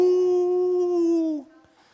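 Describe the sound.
A man's voice imitates a tiger's roar with one long, steady "haauu" lasting over a second before it dips and cuts off, leaving quiet.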